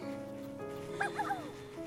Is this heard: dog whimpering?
yes